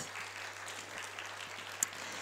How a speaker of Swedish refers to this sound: Ska ni ge dem en Applåd.